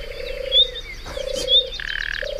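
A common nightingale's alarm call, known in Spanish as the silbarronca: drawn-out, steady whistled notes repeated three times, broken by short rasping, croaky bursts, with fainter high chirps and other birds in the background.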